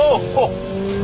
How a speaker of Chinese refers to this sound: 嗯，不光有这个排气管的这种砰砰的声音、呜呜的声音，它还有这个增压器的这种嗯嗯。我不知道这个是它增压器自己的声音，还是说按下这个按钮之后，它通过一种装置模拟发出来的声音。但是这种声音让你听着还是比较爽的。